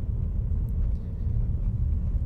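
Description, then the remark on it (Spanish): Steady, loud low-frequency rumble of a car driving, heard from inside the vehicle, with constant road and engine noise and no voices, as the driver brakes the car. “voy a frenar el auto para buscarlo bien”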